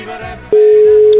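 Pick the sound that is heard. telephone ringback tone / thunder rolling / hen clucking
telephone ringback tone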